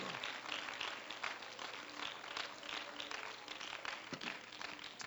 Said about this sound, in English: Praise God. Praise God. Would you clap your hands once again to the Lord? Hallelujah.